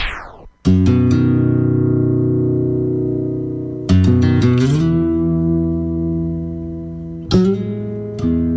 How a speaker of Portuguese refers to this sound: Vou lá quentar uma água e tu segue na gaita, …. Deixa pra mim. A gaita sim é pra se ouvir tomando mate também, compadre.